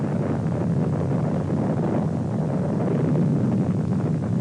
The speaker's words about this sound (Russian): взрыв выбросил из недр земли более 10 миллионов кубометров грунта. Так возникла эта гигантская воронка.